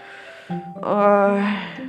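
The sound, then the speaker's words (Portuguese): A single drawn-out yawn performed by a voice, starting with a short breathy onset, then swelling into a long voiced, open-mouthed sigh that tapers off. “Bocejando comentou”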